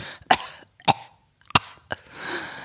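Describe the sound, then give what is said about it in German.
Four harsh coughs from a person with Covid come in an irregular series. Each is a sharp burst with a rough, rattling chesty quality, followed by a noisy wheezy breath. No speech. “Klingt auch schon sehr Hört chinesisch, das, dein Husten. Das, Rachen, das Raschel, Rasseln in meiner Lunge?”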